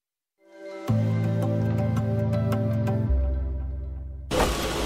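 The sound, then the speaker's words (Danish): A cutting machine in Hedensted, Denmark, runs its rotating knife through a plastic election poster, cutting shapes preset in software, with a loud, steady mechanical drone and whine, ending in a brief harsher, noisier burst. “Nu kører kniven rundt, der sidder en kniv herinde og, øh, og skære rundt i de form, som vi på forhånd har, har lagt ind i vores software.”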